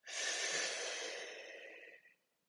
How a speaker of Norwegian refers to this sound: Ta så lange gode pust som du klarer, og fyll kroppen fullt opp med luft på hvert eneste innpust, og tøm kroppen helt for luft for eh, hvert eneste utpust.